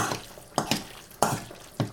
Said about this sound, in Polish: I przyszła pora na ćwiartkę cebuli. Cebula gotowa, więc mieszam z resztą składników.